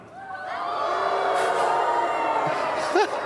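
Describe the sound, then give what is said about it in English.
A crowd of people at a Christmas Eve service howls together like wolves, many overlapping drawn-out voices rising and swelling into a loud, sustained chorus before breaking off with a few scattered whoops. “Let's everybody give our best wolf sound.”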